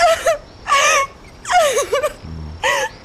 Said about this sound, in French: Je suis tellement laide quand je pleure. C'est normal.